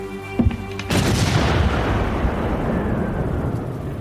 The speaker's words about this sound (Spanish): Ah, me parece que la luz se ha ido y no dudo en que tardará en volver. Pero por la forma en que se escuchó debe ser un problema del transformador de la zona.